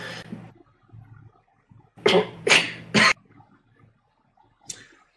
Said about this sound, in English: …'s having a coughing attack, so we'll just fill a little bit of air right here